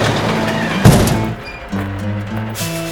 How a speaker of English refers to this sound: They finish loading up the ring into the truck and are off to the next town.